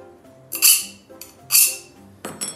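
Three short, hissy scraping strokes as a glass edge is drawn across the outer corner of a leather sole to mark a guide line for cutting with a knife, fairly crisp, evenly spaced with brief pauses and no talking.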